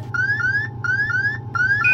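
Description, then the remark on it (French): A spacecraft computer alarm tone, program alarm 1202 in the lunar module (LEM) carrying Armstrong and Aldrin during its descent to the Moon, sounds as loud, rising electronic sweeps in quick pairs, repeating three times over a steady low hum, with no voices. “Houston, que signifie l'alarme programme 1202”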